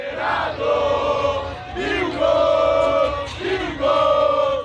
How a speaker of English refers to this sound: Mexico, Mexico. Ahead of the World Cup start in Qatar, soccer fans let loose with the usual singing.